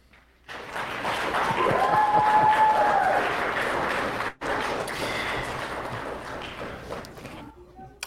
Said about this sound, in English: One of the things about that video, uh, you heard when the, the kid was done, the clapping.